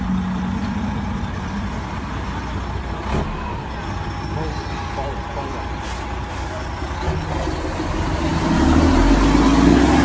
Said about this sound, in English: Here we have the truck approaching where approximately 300 animals are stacked inside this truck. We're gonna, we're gonna stop this truck so we can bear witness.